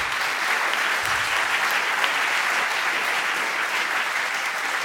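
Steady audience applause: many hands clapping in a dense, continuous crackle at an even, fairly loud level for about five seconds, with no voices standing out.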